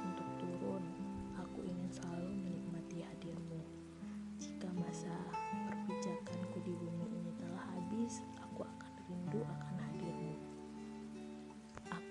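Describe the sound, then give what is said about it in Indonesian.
Steady rain patters softly beneath sustained, gentle music, a continuous wash of droplets running the whole length without pause. “aku menyukaimu hujan.”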